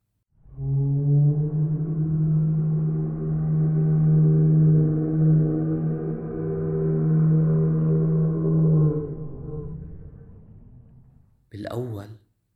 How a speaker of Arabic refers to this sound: سمعت ميرا صوت موسيقي غميق وفيه صدى